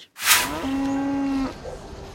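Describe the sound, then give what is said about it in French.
A cow lets out one loud, drawn-out moo, starting with a short breathy burst and holding a steady low tone for about a second before trailing off. No one speaks. “Bonjour les vaches.”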